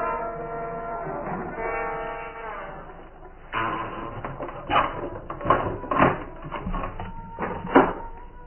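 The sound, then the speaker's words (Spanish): A heavy door groans shut with a long, drawn-out creak, then a series of loud metallic clunks and scrapes as bolts are slid into place and a heavy bar is set, closing the great exit door of the cellars, with no voices. “el varón y Lucas abandonan los sótanos, cerrando la gran puerta de salida, colocando pesada tranza.”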